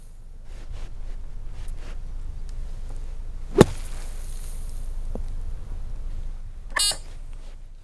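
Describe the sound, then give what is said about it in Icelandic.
A golf ball is struck out of a sand bunker: one sharp, crisp impact over a steady low background hiss, followed later by a brief scattering rustle. “Það er að slá golfkúlu upp úr svona sandgrefi.”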